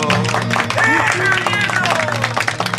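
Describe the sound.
A crowd breaks into loud, steady applause, dense clapping filling the space while scattered voices call out and cheer over it.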